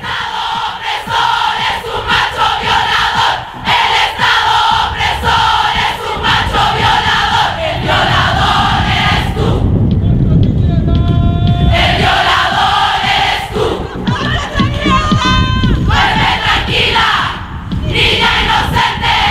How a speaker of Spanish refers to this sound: Desde ese día se empezaron a multiplicar en Internet los videos que muestran a decenas, a cientos, a miles de mujeres reunidas en distintas plazas públicas del mundo para gritar que la culpa no es nuestra.